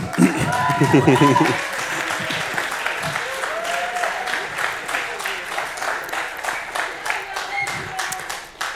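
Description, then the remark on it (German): An audience breaks into sustained applause to honour their leader, a dense crackle of many hands clapping that stays steady throughout, with a voice speaking briefly over the opening moments. “Komm, wir gib den Applaus.”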